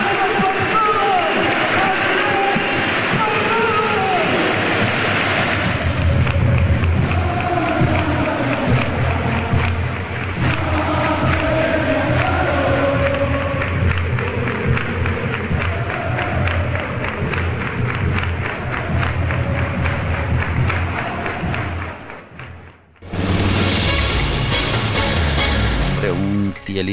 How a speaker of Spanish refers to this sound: Los dos equipos formaron un pasillo para recibir a Guardado y a su familia y ofrecerle un homenaje. Los aficionados entonaban cánticos al ritmo de Cielito Lindo, muy emotivo en realidad.